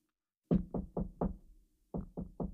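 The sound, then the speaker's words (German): Soft knocking by a small child's hand on a bedroom door in the morning, four quick raps, a short pause, then three more, muted, with nothing else around them. “Eine Stimme erklang vor der Tür, begleitet vom leisen Klopfen einer kleinen Kinderhand.”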